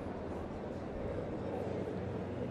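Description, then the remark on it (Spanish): Two helicopters drone overhead on their way back, a steady low rumble with faint rotor chop that holds at an even level throughout, with no talking. “Bueno, ahí van los helicópteros de nuevo.”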